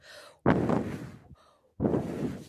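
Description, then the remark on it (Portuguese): While telling the story of the three little pigs, a voice imitates the wolf blowing hard at the pigs' brick house: two long, forceful, breathy whooshes, each preceded by a softer intake of breath, with no words spoken. “Vendo que os porquinhos não abririam a casa, o lobo começou a soprar”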